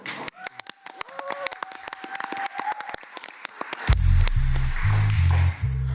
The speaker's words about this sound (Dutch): Applaus graag.